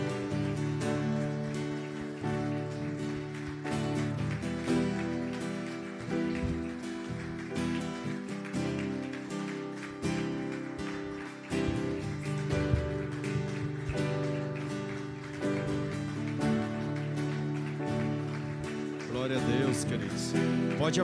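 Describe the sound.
A church audience applauds in a steady, dense clatter of clapping that lasts throughout, glorifying the Lord and welcoming a pastor. Loud instrumental music and voices run underneath.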